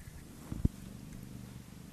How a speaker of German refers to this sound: hier schnurrt eine Katze